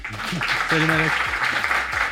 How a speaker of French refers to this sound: On est avec Antoine Gristiel, qu'on peut applaudir aussi.